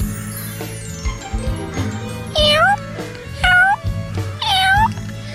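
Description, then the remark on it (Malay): A voice imitates a cat, giving three drawn-out, rising-then-falling meows about a second apart, loud, over a steady low musical background. “Eh, kenapa aku jadi kucing pula ni?”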